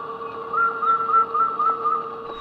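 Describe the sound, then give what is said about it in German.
Recorded calls of endangered and extinct bird species, part of a sound installation by a Polish artist in the inner courtyard of the Kunsthalle Wilhelmshaven, play as steady, sustained whistling tones that waver slightly in pitch, holding at an even, moderate loudness throughout with no voices present. “Sie hat die Stimmen vom Aussterben bedrohter Vogelarten und solcher, die es bereits nicht mehr gibt, gesammelt.”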